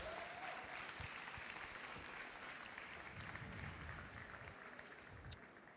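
Sustained applause from an audience, a dense steady patter of many hands clapping at even loudness for several seconds, with no one speaking over it.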